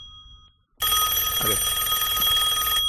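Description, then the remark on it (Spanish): A telephone bell rings loudly and continuously for about two seconds, a bright metallic trill with a steady, rapid rattle, starting abruptly after a brief quiet moment and cutting off at the end. “Y el teléfono.”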